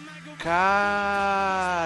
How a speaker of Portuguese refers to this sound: Eles utilizaram sons, eles fizeram uma tessitura de som que você ouviria em matadores. Então, barulho de corrente, barulho de bicho morrendo, coisas Exatamente, assim.